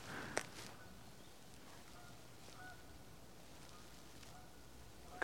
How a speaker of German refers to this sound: kein Hund, eher Vogel, Ente oder eine Gans.